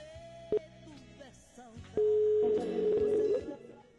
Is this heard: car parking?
no